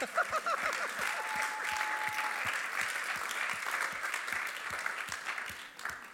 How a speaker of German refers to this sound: Applaus, ja.